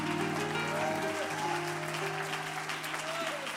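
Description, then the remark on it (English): An audience gives a hand clap of praise to God, clapping their hands together in a dense, steady burst of applause that fills the whole clip, with sustained musical tones humming underneath. “Oh, yes, a good hand clap of praise.”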